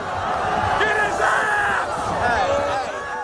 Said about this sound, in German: Die Leute, die schreien, äh, get his ass, die, die stürzen sich regelrecht auf ihn, die prügeln auf ihn ein. during that struggle, I remember uh, uh, I remember people yelling, uh, "Kill him with his gun."